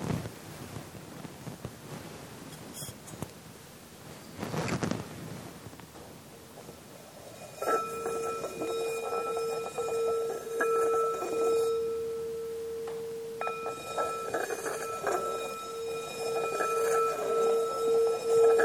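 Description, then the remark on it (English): A meditation bell is struck twice to close a meditation session, several seconds apart, each strike ringing out in a clear, sustained tone that slowly fades over a soft, steady background hiss. No one speaks. “I'm going to ring the bell and then we can come up from the meditation.”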